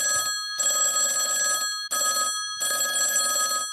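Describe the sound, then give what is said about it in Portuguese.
A telephone rings in bursts, four on-off tones in a steady ring-pause rhythm, loud with a bright electronic pitch and no talking over it, as an outgoing call is placed. “Vamos ligar mesmo. pra ela? Vamos ligar? Vamos ligar? Liga aí, maestro liga, liga, liga.”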